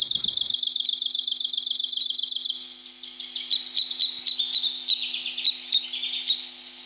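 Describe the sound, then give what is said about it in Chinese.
Recorded bird song played from the Dongniao (懂鸟) bird app: a fast, continuous series of high, rhythmic chirps pulsing rapidly, then shifting into a more varied, warbling stretch of high notes with a drawn-out ending, over a steady faint hum. “放它的 sound，就是不要放 call，它是连续的，是连续的叫鸣叫声。”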